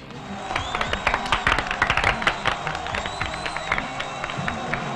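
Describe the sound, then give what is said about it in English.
Thin, cheap-sounding baseball-game-style crowd noise in a film scene, as if from about five people, with scattered cheers, claps and a murmur of voices, steady and moderately loud throughout, sounding sparse rather than like a large audience. “The stranger preaches and speaks to their god, and the bartender from the west side he fills a bowl with oil, and there's a cheap ass like baseball game crowd noise pumping in from like five people that approve of this.”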